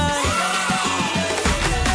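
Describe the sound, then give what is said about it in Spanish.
Bells ring out loudly in a quick, uneven series of strikes, their overlapping tones humming and sustaining between hits, with no voices present. “Oye las campanas en Canal Fiesta.”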